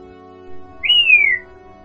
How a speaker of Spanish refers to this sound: La joven lanzó un silbido. Son unas sandalias buenas.